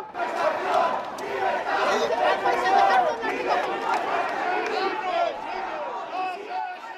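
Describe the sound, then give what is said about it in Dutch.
A large crowd of anti-monarchy street protesters, accusing the royal house of corruption, fills the air with overlapping shouting and chanting voices, dense and continuous. “En mensen die komen echt op straat daar om tegen de monarchie, anti-monarchie eh, zich uit te spreken en het Koningshuis ook te beschuldigen van corruptie.”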